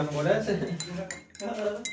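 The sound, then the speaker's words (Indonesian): Coffee stirred in a cup, the spoon clinking and scraping against the sides in a steady, continuous run for about two seconds, with a voice faintly audible underneath. “Diaduk dulu atuh, Bro.”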